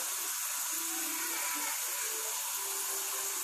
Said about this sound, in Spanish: Voy a poner, eh, voy a poner en agua los jitomates porque voy a hacer de ahí mi salsa.